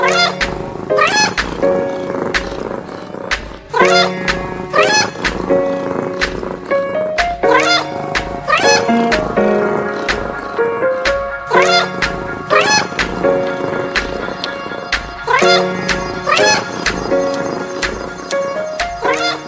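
Loud, rhythmic cat meows repeat in a steady pattern over a bouncy musical backing, the meows recurring every second or so throughout.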